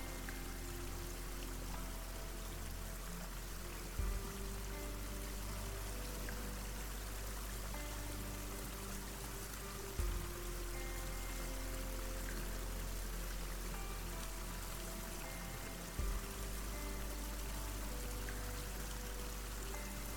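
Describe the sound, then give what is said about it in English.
Warm water pours and streams steadily from a hot spring, a dense continuous rush that stays even, with brief soft dips every few seconds. No voices. “you walk over to one and feel the water with your hand.”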